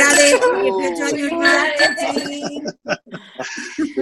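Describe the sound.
Bright glassy clinks ring out amid overlapping voices and light laughter, as several glasses tap together in a quick toast at a party.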